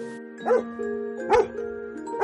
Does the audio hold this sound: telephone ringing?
no